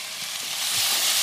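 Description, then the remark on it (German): Onion and garlic sizzling in a hot pan on the stove, a steady, bright crackling hiss that holds level and swells slightly louder toward the end, with no voices over it. “Auf den Herd damit.”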